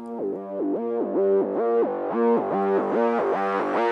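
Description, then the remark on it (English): A distorted, effects-heavy theme tune for a show plays on its own, a buzzy synth-like lead bouncing in a quick, repeating stepped riff over a steady, loud, gritty tone with no voices. “I let him use the theme song for his show that I really wanted to use for a different show”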